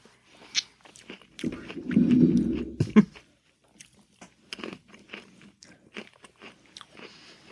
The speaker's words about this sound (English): Do I have to chew? Am I doing ASMR? Am I chewing into the microphone?